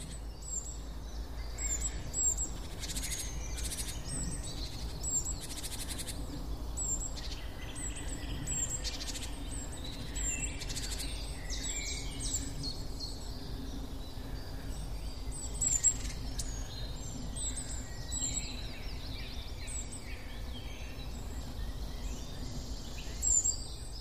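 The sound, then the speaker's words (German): Many birds sing and chirp in the Burgwald forest, with repeated high calls and trills overlapping throughout over a steady low rumble of background ambience; no one speaks. “Und die Vögel stimmen mir zu.”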